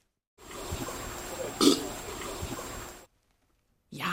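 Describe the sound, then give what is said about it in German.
A long, low elephant burp rumbles for nearly three seconds, swelling into a louder gurgling surge midway before cutting off into silence. “Ja, es war der Rülpser von einem Elefant.”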